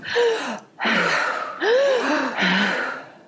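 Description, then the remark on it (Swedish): Two deep, loud breaths taken in and out through the mouth, each a long airy inhale followed by a breathy exhale, with a slight voiced rasp and no talking. “Om alla nu som lyssnar och ni också tar två djupa andetag genom munnen, in och ut genom munnen så...”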